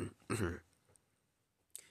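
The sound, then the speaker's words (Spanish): A person who says they have coronavirus clears their throat and coughs: two quick, rough bursts close together, a pause of near silence, then one short final cough. “Perdón por toser.”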